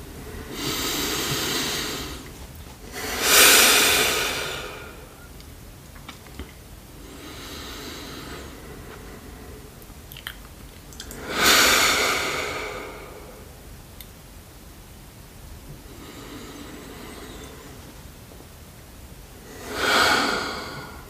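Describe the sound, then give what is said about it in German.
Three slow, deep breaths taken together before a gong is struck, each a soft inhale swelling into a louder, airy exhale, spaced several seconds apart with quiet pauses between and no talking. “Und alles ruckeln und genau, und bevor ich jetzt einmal gonge, nehmen wir einfach irgendwie so drei tiefe Atemzüge gemeinsam.”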